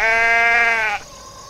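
sheep bleating

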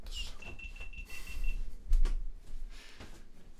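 electronic device beeping

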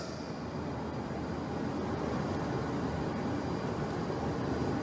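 airplane landing

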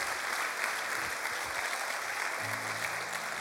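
audience applauding

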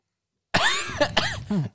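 gagging

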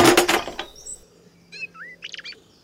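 birds chirping

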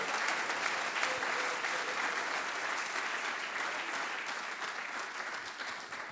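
audience clapping

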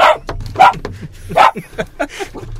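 dog barking

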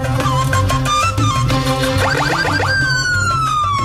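emergency vehicle siren wailing

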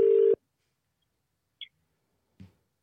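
outgoing telephone call ringing

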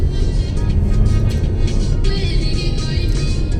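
car driving

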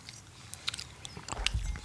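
lip smacking

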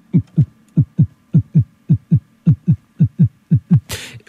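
heartbeat

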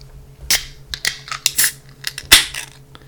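beer bottle being opened

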